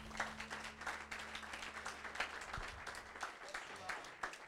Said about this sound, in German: Ja, lass uns Jesus einen mächtigen Applaus geben.